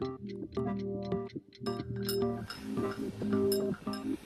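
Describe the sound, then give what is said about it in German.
An alarm clock ticks in a steady run of short, sharp clicks, set against sustained, mellow musical tones that hold underneath throughout. “Noch klingelt der Wecker nicht. In 20 Minuten beginnt es, das neue Leben. Tickt er mir ins Bewusstsein.”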